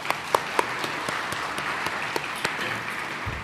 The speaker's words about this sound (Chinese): 大家应该会觉得很想鼓掌，我们应该我们用一起掌声来把这个荣耀献给神。